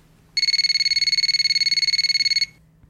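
A telephone rings once in a single burst of rapid, high-pitched electronic trilling that lasts about two seconds and then stops, with no voices.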